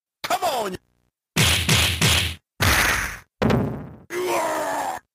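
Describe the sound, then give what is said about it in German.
Five loud, punchy video game hit and punch sound effects in a row, separated by short silences, some mixed with groaning, crunchy cries of pain. “also gerade auf der Audioebene, die Samples, sowohl die Schlagsamples, auch, auch die Schreie sind auch in ihrer Abmischung sehr satt, sehr plastisch.”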